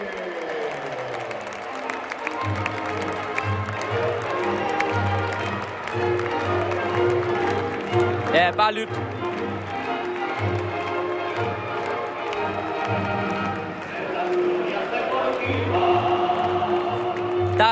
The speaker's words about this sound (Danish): er mesterskabsfest på Banabeo. Tillykke til Real Madrid.